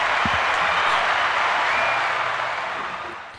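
An audience bursts into steady, dense applause, many hands clapping together in a bright continuous wash that holds strong before gently tapering off near the end.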